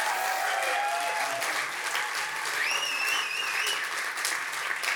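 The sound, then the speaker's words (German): Steady applause from an audience fills the whole stretch, a dense wash of clapping that holds at a constant level, with a few faint whistles riding on top. “komm, wir geben mal einen Applaus an Benny hin, der im äh, VCR hockt”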